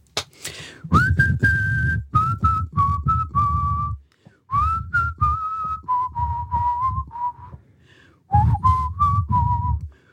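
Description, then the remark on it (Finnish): Someone whistles a melody in three phrases, clear, sustained notes stepping gently downward, fairly loud, with brief pauses between phrases and no talking. “No yleensä on ne mun vihelykset.”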